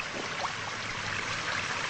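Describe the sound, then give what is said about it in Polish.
Steady drizzling rain, a soft continuous hiss of fine patter with no break or change in level, with no voices present. “Tak deszcz.”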